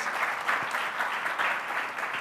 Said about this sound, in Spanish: o sea que un aplauso para todas las maestras, aunque no estén acá muchas de ellas